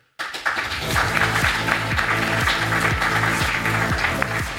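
Steady audience applause welcoming a guest starts abruptly and continues as a dense, crackling wash of clapping throughout, with a repeating low rhythmic pulse running underneath. No one speaks.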